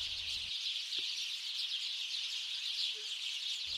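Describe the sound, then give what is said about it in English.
A dense, continuous wash of high chattering bird calls, like a large flock of starlings calling together, steady and fairly loud throughout with no pauses. “A great feeling of happiness and delight enveloped the birds, and a collective was shouted loudly and proudly on the completion of routine X.”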